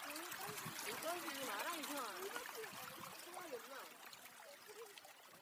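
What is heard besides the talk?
trickling stream water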